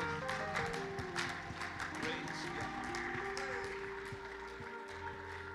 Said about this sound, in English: We clap our hands under the Lord. Thank you, Jesus.